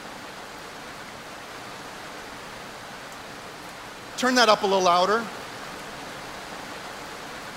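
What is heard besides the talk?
rain falling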